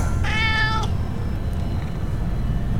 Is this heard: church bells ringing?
no